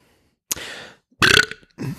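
Two loud, throaty burps in quick succession, the first a rough, drawn-out belch and the second a sharper, raspier one, followed by a brief trailing vocal grunt. No speech.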